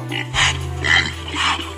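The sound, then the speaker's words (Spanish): A pig grunts and oinks three times in a steady rhythm, each call short and fairly loud, over a low continuous hum. “Ya se me antojó el tocino de puerco.”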